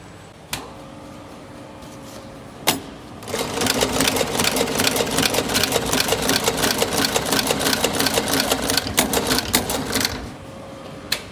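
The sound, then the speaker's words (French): A sewing machine runs steadily for about seven seconds, a fast, even rattle of stitches sewing a glued leather corner seam, framed by a few sharp clicks and a low hum before and after. No one speaks. “Maintenant, c'est la couture en coin.”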